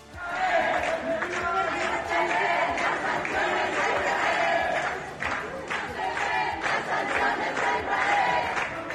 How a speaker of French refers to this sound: Oui, oui, ce sont les applaudissements devant l'hôtel que vous entendez là. Hein. C'est l'hôtel Cortès à Barcelone avec une pancarte où il est écrit en catalan Solidarité avec la Palestine.